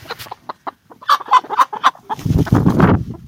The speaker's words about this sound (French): alors attendez. Oh ben les poules Allez, vas-y, rentre-toi.